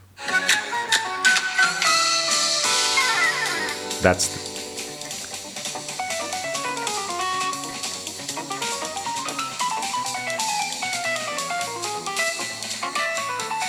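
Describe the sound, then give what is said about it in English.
A recorded jazz solo over a full band plays loud for about eight bars, the beginning of the solo that follows a flute part, the lead line running in quick melodic phrases over bass and bright cymbals, with one brief spoken word. “this is the beginning of the solo after … has emptied his flute”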